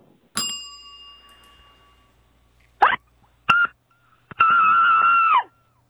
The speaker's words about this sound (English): Wow. No. That was a that was a lit primal scream.